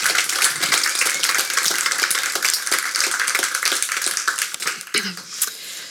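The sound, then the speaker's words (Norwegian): An audience applauds an author before she reads from her book. A dense wash of many hands claps steadily at an even level for several seconds, tapering slightly toward the end. “gi henne litt applaus før hun nå leser litt fra boken.”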